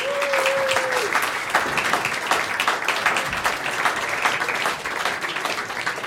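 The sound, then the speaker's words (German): Steady, sustained applause from an audience welcoming historian Peter Longerich onto the stage, a dense wash of many hands clapping at an even loudness for several seconds, with a brief whistle-like tone near the start. “Applaus”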